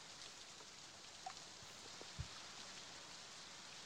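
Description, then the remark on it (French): Rain falls steadily in a soft, even hiss, with a couple of louder drops pattering. It is fairly quiet and there are no voices. “est pour avancer, malgré la pluie.”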